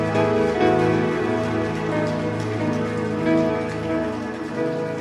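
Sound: audience applauding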